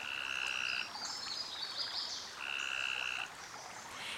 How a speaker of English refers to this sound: stop by a creek to enjoy a blue space and listen for frogs